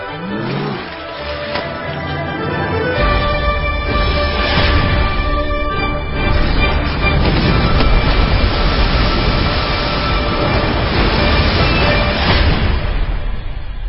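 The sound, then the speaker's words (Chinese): Trailer audio for Stephen Chow's film The Mermaid: a dense, loud wall of dramatic sound effects and music with rumbling, roaring textures that swells after a softer opening and stays intense throughout, with no talking. “好，刚才大家听到的是电影《美人鱼》的预告片哈，这部电影很神奇，九十二个小时就能破十亿的票房，也创下华语影史最快的破票房的记录。”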